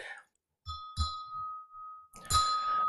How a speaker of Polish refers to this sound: I żeby dowiedzieć się najważniejszego, przyniosłem sobie ten młotek. Bo gdy ja w ten dzwon uderzę, to dopiero wtedy dowiaduję się, jaka jest istota tego dzwonu, czemu on służy.